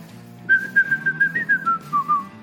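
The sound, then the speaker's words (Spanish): A person whistles a short tune of about a dozen quick, clear notes in a gently descending melody, steady, with a faint low background hum. “Pero para que la gente no lo vea, entonces la empieza a silbar.”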